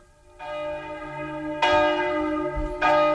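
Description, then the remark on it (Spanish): Village church bells ring out in successive strikes, each a bright metallic clang whose rich overtones hum and linger before the next peal lands, about three strikes in a few seconds, fairly loud. “Y son las campanas.”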